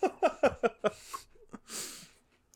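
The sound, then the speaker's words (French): Chewing of a mouthful of cheese in Laval, two people taking a bite at the same time: a quick run of five rhythmic wet munching bursts followed by heavy nasal breaths and a sniff, with no talking. “Vous allez entendre des, des, mâchages puis des trucs.”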